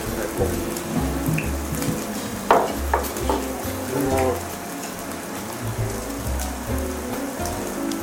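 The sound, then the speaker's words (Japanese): Steady crackling sizzle of meat skin, the cut called gaiken, on a grill, a dense hiss with sharper pops, continuous under a low background hum, with a few clinks partway through. “ありがとうございます、今お焼きしてるのが外見という皮の部位でございます。”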